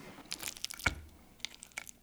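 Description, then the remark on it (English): A crisp crunch as someone bites into baked noodle kugel, one sharp crackle followed by a few softer chewing crunches, with no talking. “We got a little crunch.”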